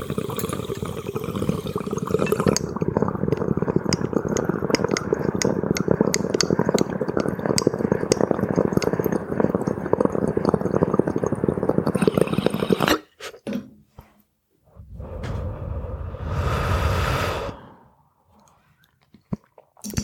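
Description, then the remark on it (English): Loud water bubbling and gurgling churns steadily for about thirteen seconds in a dab rig as someone takes a dab, then cuts off; after a brief pause a softer, breathy rush swells for a couple of seconds and fades. “I'll continue with my story after dab time.”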